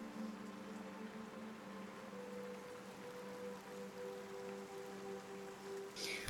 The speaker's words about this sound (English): So pretty uneventful travel day, other than it's just raining very heavily.